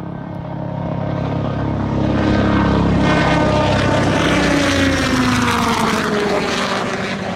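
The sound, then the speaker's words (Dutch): An S-97 Raider compound helicopter roars past at 180 knots, a loud, steady rotor-and-propeller drone with a slowly falling pitch as it passes, no voices over it. “Het is dus de S-97 Raider.”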